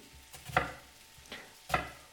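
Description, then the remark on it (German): Gnocchi sizzle in a hot pan with a steady frying hiss, swelling into a few loud, sweeping bursts as the pan is tossed. Clear, with no voices. “Wenn ihr nicht schwenken wollt, nehmt da halt einen Löffel und rührt da mal ordentlich durch.”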